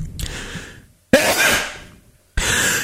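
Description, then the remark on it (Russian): Three sudden, breathy sneezes, fairly loud, each bursting out sharply and trailing off, with brief quiet gaps between them and no talking. “Будь здоров.”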